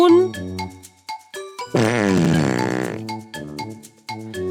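A loud, blaring cartoon fart sound effect lasts about a second, with a wobbling, buzzy tone, framed by bouncy plucked musical notes before and after, representing an ox farting after being fed vegetables.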